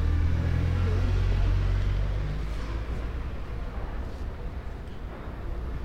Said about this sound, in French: Parce que là, comme tu l'as entendu, je suis passé près de terrasses de restaurants, et de passage de voitures. Et de bus aussi.